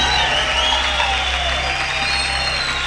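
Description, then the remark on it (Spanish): A large crowd claps steadily and loudly in praise of Jehovah for the full few seconds, a dense wash of applause, with a faint low hum lingering underneath. “Un aplauso a Jehová fuerte, aleluya.”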